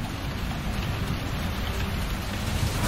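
Steady rain falls and patters on a surface, a dense continuous hiss with low rumbling underneath, moderately loud and unbroken throughout, with no voices.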